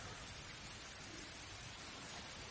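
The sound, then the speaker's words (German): Steady rain falls outside in a continuous, even hiss with soft pattering, constant in level for the whole stretch and with no voices over it. “Während ihr draußen das Plätschern des Dauerregens hört.”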